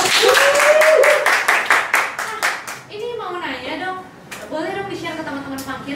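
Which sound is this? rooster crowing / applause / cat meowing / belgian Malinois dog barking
applause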